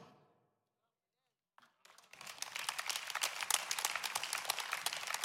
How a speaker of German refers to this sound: Applaus